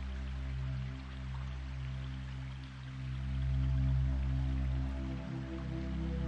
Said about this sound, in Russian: Бурлящая вода течет мимо тебя. Она берет свое начало из источников далеко в горах, танцевала в глубоких ущельях, разливалась туннельными местами над далеким водопадом.